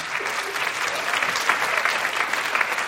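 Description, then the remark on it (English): Women in an audience who have been online dating applaud steadily for the full three seconds, a dense, even wash of many hands clapping at once, fairly loud with no voices over it. “People here who've been online dating, can you uh, applaud women, especially if you've been dating online?”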